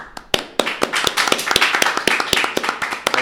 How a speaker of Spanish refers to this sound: hay que aplaudirlo.